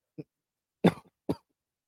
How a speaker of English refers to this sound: Excuse me. Sorry. I don't have water with me. So I had to cough there. My bad. Um Jeez, my throat.